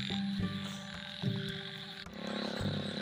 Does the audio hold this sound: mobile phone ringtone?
no